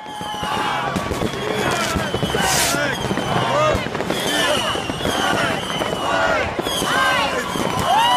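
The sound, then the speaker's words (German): A dense, nonstop barrage of New Year's fireworks: overlapping bangs and crackles with rockets whistling up and down in pitch, loud throughout, with faint voices mixed into the din. “Aber dann verpasst es ja jetzt das Feuerwerk.”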